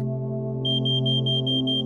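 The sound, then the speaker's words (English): A smoke alarm in a kitchen, set off by smoke from a burnt omelette on the stove, starts up partway through, blaring a fast, evenly spaced run of shrill, piercing beeps over a steady low hum in the background. “A sudden blaring noise comes from the kitchen. I jump up into the thick smell of smoke.”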